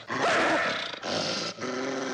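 Caged foxes in an experiment to domesticate foxes snarl and snap their teeth, harsh and raspy, in three loud continuous bursts with brief breaks between them. The growls waver in pitch and carry a gritty, hissing edge, with no talking.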